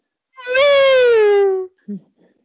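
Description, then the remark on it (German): A voice imitates a howling firework rocket, a 'Heuler', as a virtual firecracker sound, with one sustained, strongly harmonic wail that glides slowly downward in pitch for over a second, then breaks off, followed by a short grunt. “Ähm, also ich, ich mache den Heuler.”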